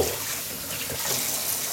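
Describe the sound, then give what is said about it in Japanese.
Steady running tap water hisses and splashes continuously, with faint clinks and shifting splashes as dishes are washed under the stream; no one speaks. “えー、あ、お皿洗ってます。”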